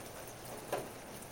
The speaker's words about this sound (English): Do you hear anything? Just the rain.